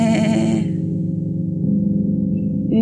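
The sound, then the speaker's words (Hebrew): A voice imitates a sheep, giving one long, loud, wavering bleat that trembles steadily for about three seconds, starting bright and nasal and then settling lower, as a bleat coming from an elephant's third trunk. “יצא קול פעייה מחדק השלישי.”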